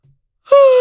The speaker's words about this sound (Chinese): 或者是，嗯，糟了，说说的睡着了这个词儿，我现在想打个哈欠。